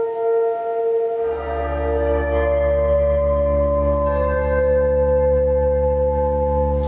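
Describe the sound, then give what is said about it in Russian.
A deep, resonant church-style bell strikes and its rich ringing tones hang on steadily, loud and sustained, the bell toll that opens the air-raid alarm in Chernivtsi, Ukraine, with no voices present. “Интересно, что я был в Черновцах э, в это время, и в Черновцах э, звук воздушной тревоги начинается с удара колоколом, с таким набатом такой немножко церковный.”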